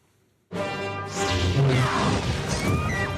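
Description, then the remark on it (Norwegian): After a brief silence, lightsabers hum loudly and clash again and again, with crackling impacts and swooshing swings that stay continuous to the end. “Dette er lyden av mørkets krefter. Lasersverd, avkuttede armer og drap på små uskyldige jedi-barn.”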